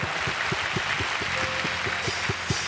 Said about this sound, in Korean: 네, 믿으시는 만큼 하나님께 감사와 영광의 박수 한 번 더 올려드립시다.